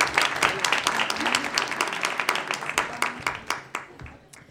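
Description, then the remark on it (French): Scattered, somewhat timid audience applause at an evening event as the philosopher Camille is invited onto the stage, a patter of many hands clapping at moderate volume that thins out and fades toward the end, with faint voices murmuring underneath. “C'était un peu timide les applaudissements là quand même.”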